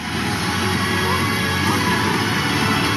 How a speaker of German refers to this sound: Und da gab es nicht nur Jubel. So klang es. Also das ist die Musik, die wir dann irgendwie da eingespielt bekommen.